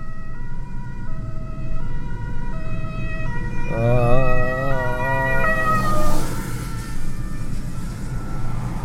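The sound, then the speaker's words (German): An ambulance siren alternates between two tones, then switches to a rapid wail as it passes by through a traffic jam while cars pull aside, over a steady rumble of road traffic. “Und jetzt, ernsthaft, ernsthaft, jetzt fährt der Audi hinter dem Krankenwagen her.”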